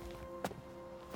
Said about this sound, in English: The path is silent, except for the soft crunch of his own footsteps.